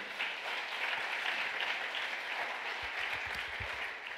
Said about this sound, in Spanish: ¿Cuánto le da un aplauso fuerte al Señor?